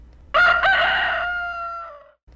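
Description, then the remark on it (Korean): A single rooster crows once, loud, a bright harmonic cock-a-doodle-doo lasting about two seconds that trails off at the end, with no other sounds around it. It is the first crow of the day, at about 2 a.m. in late autumn. “첫 닭이 울자마자 삼장은 시종을 불러 갈채비를 했습니다.”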